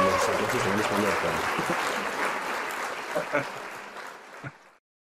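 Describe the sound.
A crowd applauds with dense, steady clapping for about four and a half seconds, a few louder individual claps standing out near the end before it cuts off abruptly. Faint voices murmur underneath.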